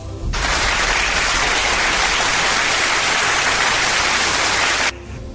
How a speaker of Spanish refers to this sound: Aplausos.